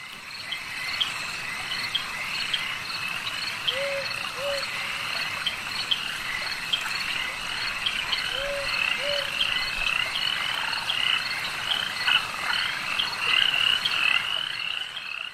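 A frog croaks in two short paired calls, a few seconds apart, over a dense, steady chorus of crickets and insects in a quiet night swamp.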